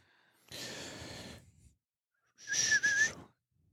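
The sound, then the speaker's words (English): Two loud, breathy whistles blown close to a microphone, the first long and airy, the second shorter with a clearer wavering pitch, separated by a brief pause. “Shouldn't whistle into the mic, sorry.”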